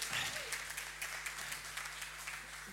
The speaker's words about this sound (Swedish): Underbart. Vi ger en stor applåd här än en gång.